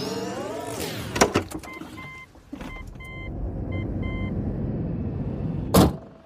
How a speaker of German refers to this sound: Kommt mit, wir steigen in mein E-Auto und fahren nach Straubing.